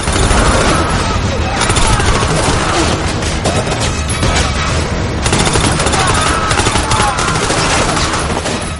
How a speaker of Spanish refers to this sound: Dos infiltrados asoman por una puerta, entran y disparan. Empieza un fuego cruzado.